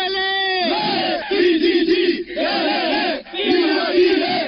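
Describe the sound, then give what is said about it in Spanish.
A group of trapped workers awaiting rescue shouts a loud chanted "Chi" cheer in unison, opening with a long drawn-out call followed by several rhythmic bursts of voices, energetic. “Vamos aquí a hacer un saludo. ¡CHI! ¡Sí!”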